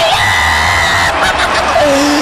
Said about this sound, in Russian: Это, конечно же, Лао Дань. Ли Эр, Ли Боян или Лао Цзи, Лао Цзи, аплодисменты!